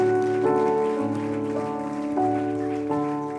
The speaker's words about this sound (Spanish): Levante usted una ofrenda de palmas al Dios Todopoderoso.